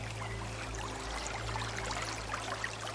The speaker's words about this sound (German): Ihr seid wieder zurück am Bach, hier im Park.